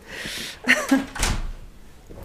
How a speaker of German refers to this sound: Macht gerade jemand, ne, macht der Geist die Tür auf, lass ihn einfach offen, oder? Nochmal zu, gut.